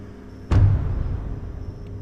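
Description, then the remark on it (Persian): A black SUV pulls out of a warehouse and drives off toward the main road: its engine starts with a sudden low thump and settles into a deep, steady rumble that slowly fades. Nobody speaks. “از بغل نگاه کردم دیدم یه ماشین شاسی بلند مشکی از انبار اومد بیرون و رفت به سمت جاده اصلی”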